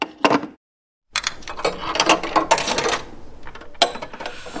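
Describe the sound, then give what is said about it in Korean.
A short mechanical clack as a public payphone handset is hung up after a call, then after a brief silence a busy run of metallic clunks and rattling coins tumbling out of the payphone, ending with another sharp clatter; fairly loud, with no talking. “통화 마치고 수화기를 내려놓으니까 동전이 딸그락 떨어졌죠.”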